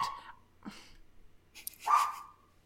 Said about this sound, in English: And the dog's barking.